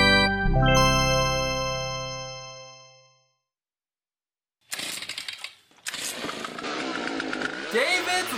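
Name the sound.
leaf blower engine running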